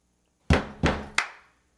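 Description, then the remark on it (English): Three loud beats knocked out by hand by a drummer, a song's drum beat in a quick rhythm: two deep, resonant thumps followed by a sharper, brighter strike, each ringing briefly before fading out. “Here is drumming knock number one.”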